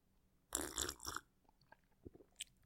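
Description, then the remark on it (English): A small sip of whiskey: a brief wet slurp, followed by a few quiet mouth clicks and a soft swallow. No one speaks. “That special guest is named Small Sip of Whiskey. Here is what our guest sounds like.”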